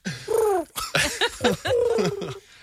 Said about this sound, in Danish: Heller nogle duer.